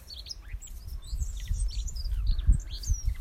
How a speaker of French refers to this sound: On entend justement tous les oiseaux. Je crois qu'il y a un nid juste à côté.